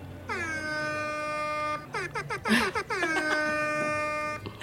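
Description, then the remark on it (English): A loud, brassy air horn sound from a phone app called Ham Horn, played at a wedding in Philadelphia, blares in a long sustained blast, breaks into a few quick choppy honks, then sounds another long blast, piercing with no talking. “So uh, I was just at a wedding this weekend in Philadelphia, and we, a group of us decided that, well, we're at a wedding, we're going to need an air horn. So one of us found this app. It's called Ham Horn”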